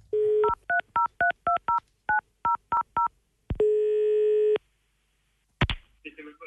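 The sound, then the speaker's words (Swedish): A steady dial tone gives way to a quick run of about ten touch-tone beeps, then a long, steady ringing tone, before a brief burst of a voice picking up at the end: Anders Timell phoning in sick to the wrong job. “Och här ska vi få njuta av hur Anders Timell ringer sig sjuk på fel jobb.”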